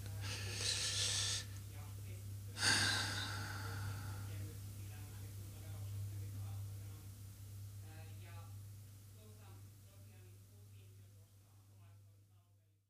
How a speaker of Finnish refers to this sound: puhuu, kuuluu heikosti, niin se on makuuhuoneessa ja ovi on kiinni